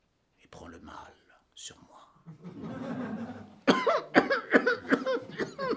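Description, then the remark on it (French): A string of harsh coughs from a stubborn cold bursts out in quick succession, loud and rough, after a few seconds of soft whispery breathing and murmuring. “C'est un rhume obstiné, sans doute.”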